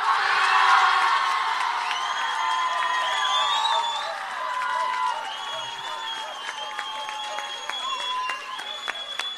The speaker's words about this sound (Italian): È il turno dell'applauso. Vai con l'applausometro dei Mesi Opera.